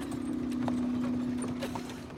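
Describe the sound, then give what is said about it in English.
Horse hooves clip-clop in an uneven rhythm as a horse-drawn wagon rolls along, with a steady low drone running underneath and faint mechanical rattles, moderately loud, no voices. “He and his brother took women and children into a horse drawn wagon and hauled them up there to get up to the park.”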